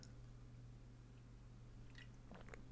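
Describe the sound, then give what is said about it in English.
Someone takes a quiet sip of sparkling water, with a few soft wet slurps and mouth clicks near the end over a steady low hum. No one speaks. “Sorry, I took a drink of my sparkling water.”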